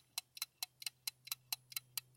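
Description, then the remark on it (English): A game show countdown clock ticks off ten seconds, steady at about four crisp, bright ticks per second, clear over a faint low hum, with no voices. “Ten seconds on the clock.”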